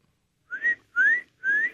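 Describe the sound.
Three short, rising whistles in a steady rhythm, like a call, each clear, with brief pauses between them and no talking: a person at an open back door whistling to call birds to be fed.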